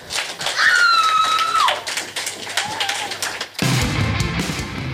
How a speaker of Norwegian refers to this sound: En ekstra applaus til bandene. Takk for i kveld.